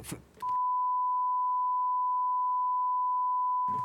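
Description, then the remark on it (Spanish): A steady, loud single-pitch bleep runs for about three seconds, censoring speech that revealed marketing strategies, with brief bursts of talking just before and after it. “Ustedes escucharon un pip porque revelé estrategias de marketing que no podemos revelar.”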